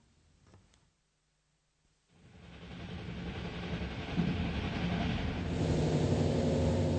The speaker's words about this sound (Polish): Pociąg wjeżdża w zagłębie Rury, centrum niemieckiego przemysłu.